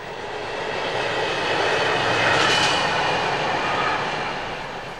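A freight train roars through the village of Steinen in the canton of Schwyz, Switzerland, in a steady, broad rumble that swells to a peak midway and then slowly fades, with a hissing, rushing wash of noise and no voices.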